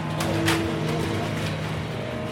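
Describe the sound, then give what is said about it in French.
A fishing boat's engine drones loudly, heard from the deck, deafening, thick and constant with a low rumbling hum, as the boat rolls and pitches in the swell. “Le bruit du moteur est assourdissant et me donne hyper mal au crâne.”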